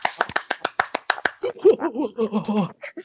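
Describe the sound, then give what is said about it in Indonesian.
About ten sharp hand claps in a quick, steady rhythm, played alone for just over a second before voices begin talking over a continuing conversation. “Uhuy, tepuk tangan untuk kita semua”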